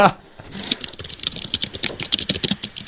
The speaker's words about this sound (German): Ja, aber sie tippt lauter, wie sie redet, ne? Ist immer so. Das Mikrofon ist auch direkt neben der Tastatur bei der.